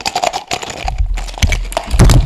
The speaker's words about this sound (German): Oder, jetzt ist das Mikro umgefallen.